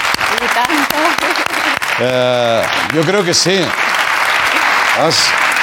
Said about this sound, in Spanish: Y un aplauso, ¿no? ...no para Julia Navarro.